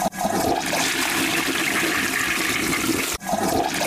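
A toilet flushes with a loud, steady rush of water, then cuts off abruptly and starts again as a second flush. The sound is continuous, with no talking.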